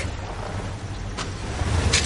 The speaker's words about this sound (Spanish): Su coche se aleja de la casa de Mac.